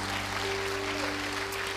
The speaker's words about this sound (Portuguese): Você podia dar um aplauso bem forte ao Senhor Jesus nessa hora.